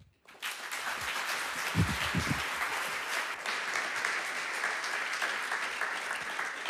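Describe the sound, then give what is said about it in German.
A church crowd breaks into steady applause for a woman about to give a testimony at the close of a sermon, a dense wash of clapping hands that holds at an even level for several seconds, with a few low murmurs briefly rising underneath early on. “Lass uns ihr einen Applaus geben.”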